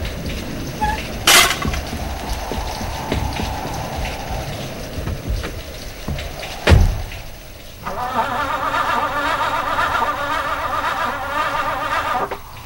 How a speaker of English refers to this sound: Oh no! The car won't start! Darn it! Start!